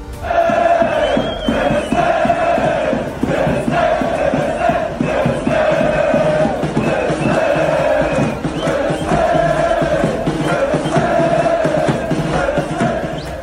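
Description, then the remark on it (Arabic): A huge stadium crowd of Moroccan fans chants in unison at the end of the Morocco versus Canada match at the Qatar World Cup, in which Morocco qualified for the second round. The rhythmic massed voices are loud and sustained, with repeating phrases rising and falling over the full length and no single speaker standing out. “في نهاية مباراة المغرب ضد كندا التي تأهلت للدور الثاني فيها هتفت الجماهير المغربية”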